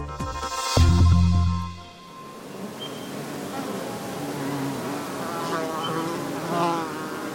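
Insects buzz past at close range, a loud low drone swelling in the first two seconds before fading into a steadier, softer hum of wings with occasional higher whines passing by.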